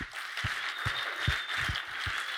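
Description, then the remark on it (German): A steady wash of clapping from a group, given as a welcome to the people at a camp, dense and continuous throughout, with a few low thumps scattered beneath it and no voices. “Lass uns doch allen, die im Camp sind, ganz äh, herzlichen Willkommensgruß und Applaus geben, dass die uns hören.”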